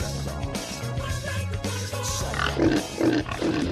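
A pig squeals and grunts in a few short, loud bursts toward the end, over a steady low musical backing.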